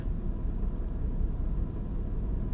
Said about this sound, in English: But I can't tell if you can hear my car or not. She's loud. Yeah, that's not even the air, that's literally just the car. Anyways, pretend you can't hear that.